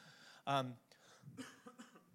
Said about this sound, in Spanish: me vas a disculpar que, que, esté tosiendo, pero todavía estoy en el proceso de recuperarme completamente.